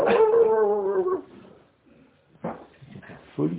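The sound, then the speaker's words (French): A person mimics a dog howling with a long, wavering howl, then after a short pause adds a couple of briefer, whiny dog-like cries. “Il y a un type qui est venu même avec un chien à la synagogue.”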